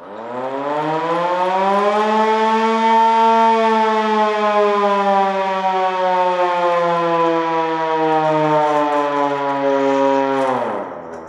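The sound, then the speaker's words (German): A small hand-cranked air-raid siren at the top of a bunker staircase on Helgoland, used to start every bunker tour, winds up to a loud, sustained wail, holding steady for several seconds before dropping and fading out at the end. No one speaks. “Denn wenn man reinkommt, dann steht man erstmal am oberen Ende eines Treppenhauses und dort steht auch so eine kleine Luftschutzsirene, mit der jede Bunkerführung auf Helgoland beginnt.”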